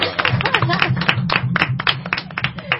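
Sustained applause from a crowd, a dense, steady patter of many hands clapping at once for the whole stretch, fairly loud and even without any pause or build.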